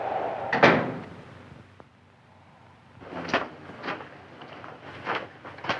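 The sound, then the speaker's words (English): A door swings shut with one solid thud, followed after a short pause by a few lighter, evenly spaced knocks or footfalls. “Close the door.”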